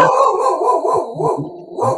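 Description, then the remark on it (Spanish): A dog barks repeatedly in quick, uneven bursts, fairly loud, with short yelping, whiny edges between barks and no talking over it, while it is raining with lightning. “Tengo, el perro aquí, está de acuerdo contigo.”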